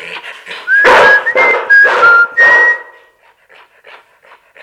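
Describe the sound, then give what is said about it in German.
A person whistles a short melodic phrase from Mozart's Don Giovanni, rising and steady high notes, as an acoustic command signal to a trained dog, which pants and whines loudly and then lies down, its panting continuing faintly on its own. “Sie reagieren jetzt auf ganz präzise Signale. Optische.”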